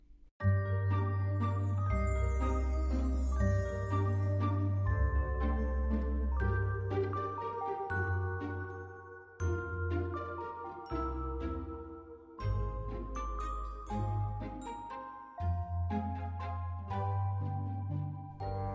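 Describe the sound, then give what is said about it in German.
A short instrumental intro jingle plays at full volume with a steady beat, sustained bass tones and bright melodic notes that shift every few seconds, with no talking over it. “Gut, dann hören wir uns gleich nach der Intro-Musik.”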